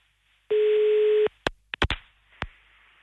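A steady telephone tone sounds for under a second, followed by a handful of short, sharp dialing-like bursts in an irregular rhythm, with no voices, as the radio show Äntligen morgon places a call to a listener.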